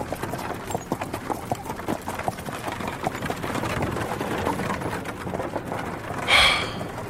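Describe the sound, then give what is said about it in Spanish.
A horse-drawn carriage pulls away toward a convent around midday, hooves clip-clopping in a steady, even rhythm, with wheels rumbling beneath, and a brief high-pitched sound near the end. “El carruaje salió hacia el convento cerca del mediodía y el llanto de las jóvenes se escuchó hasta que se perdieron en el horizonte.”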